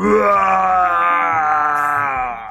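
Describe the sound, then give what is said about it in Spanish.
A person imitates TZ roaring at the toucan Carquelino: a long, loud, growling roar lasting a couple of seconds, strained and harmonic like an angry beast, alone with no speech. “TZ se impacientó con, con el tucán carquelino y le pegó un rugido.”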